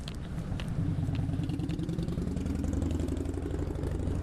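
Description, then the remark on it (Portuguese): An engine idles in street traffic in Lisbon, outside the PLMJ law office, with a low, even rumble and a faint rattle, holding at a constant loud level for the whole stretch without anyone speaking. “Como está o trânsito em Lisboa? O trânsito em Lisboa está calmo.”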